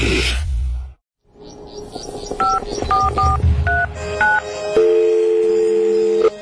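Telephone keypad dialing tones: a quick, uneven run of about six short two-tone beeps over low background noise, followed by a steady, continuous line tone that holds to the end.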